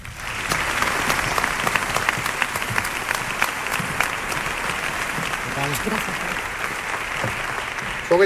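Sustained audience applause welcoming two new narrators to the El Llamador team, a dense steady wash of many hands clapping, holding at an even level for several seconds.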